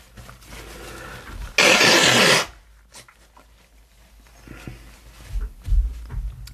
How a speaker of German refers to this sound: Mal ganz, ganz kurz nochmal Nase putzen.